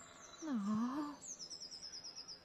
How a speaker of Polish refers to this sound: Gdzieś tam w tle widzicie jakiś pojedynczy kruk.